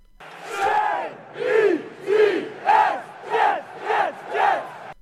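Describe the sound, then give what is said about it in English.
A rowdy crowd of drunk New Yorkers chants the team name "Jets" in loud, rhythmic bursts, with about seven drawn-out shouts in a steady pulse and no other talk. “That was a bunch of drunk New Yorkers screaming Jets”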